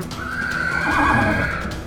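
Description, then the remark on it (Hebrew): A horse ridden by a child whinnies in one long, loud, wavering call that fills the whole two seconds, with faint hoof clatter underneath and no voices. “אבל הבעיה היא שהסוס הזה לא היה אצילי בכלל”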